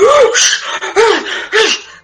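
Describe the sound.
Three loud, forceful breaths pushed out in quick succession with a steady rhythm, each a short rough huff with a slight voiced edge, demonstrating a breathing technique being taught.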